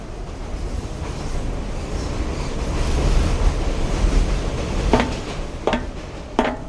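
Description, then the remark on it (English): An elevated train runs past with a steady, broad roaring rumble, then three sharp metallic clacks of wheels over rail joints near the end. No voices. “Typical elevated train.”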